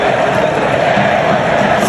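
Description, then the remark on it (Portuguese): A dense, roaring crowd of football fans chanting together in a stadium, a loud continuous wall of many voices with no clear individual words standing out. “Ó, a gente tem um momento da torcida aqui, ó.”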